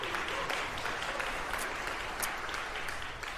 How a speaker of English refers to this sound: We could give him a round of applause ahead of time. Yeah.